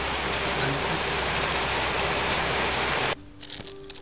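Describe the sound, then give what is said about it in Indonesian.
Steady, dense rain hisses loudly for about three seconds, then cuts off abruptly, leaving a quieter background tone with faint murmurs. “hujan juga ya hujan juga nih”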